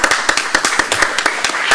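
At a city council meeting, attendees clap steadily for the team behind this year's budget, many overlapping hand claps forming a dense, bright patter with sharp individual slaps poking through, fairly loud and continuous with no talking over it.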